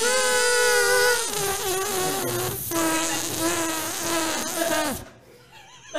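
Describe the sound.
A voice imitates a fart with a loud, buzzy raspberry of wavering pitch, held for about five seconds in a few sputtering stretches, then it stops abruptly and quiet follows.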